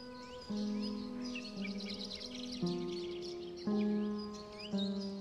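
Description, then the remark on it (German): A startled flock of small birds chirps busily and continuously as it flies up, their high twittering layered over steady, sustained low musical tones that shift pitch every second or so. “schaut einem Vogelschwarm nach, der aufgeschreckt hochfliegt”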